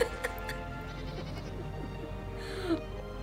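Sheep bleat over a steady low rumble, several wavering, overlapping calls running the full few seconds, with a brief sharper bleat near the end. No one speaks.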